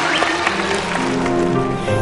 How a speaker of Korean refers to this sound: 초대 손님 모시겠습니다. 박수로 환영해 주시기 바랍니다.